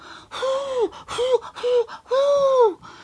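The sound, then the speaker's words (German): A voice imitates the howling wind that came with the snow, with four drawn-out, rising-and-falling "hoo" sounds, breathy and fairly loud, the last one longest, with short pauses between. “Ja, aber der Schnee kam mit Wind und er kam so. Hu, hu, hu,”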